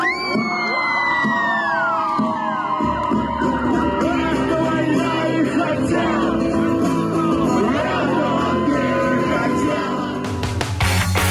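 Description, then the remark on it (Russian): A dense, loud crowd of fans at a concert in the MOD club in St. Petersburg on 7 January yells, whoops and cheers continuously, with overlapping shouting voices; a few sharp percussive hits burst through near the end. “Судя по опубликованному видео, фанаты были в восторге от выходки музыканта.”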